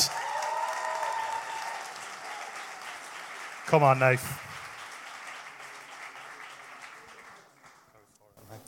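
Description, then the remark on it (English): Steady audience applause throughout, a dense wash of clapping, with a single voice calling out loudly over it midway before the clapping gradually thins toward the end. Church audience at Life Central applauding at a baptism, as a speaker is welcomed to the stage. “Why don't we keep that applause going”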